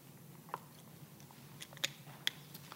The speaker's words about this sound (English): I love to hear those pages turn.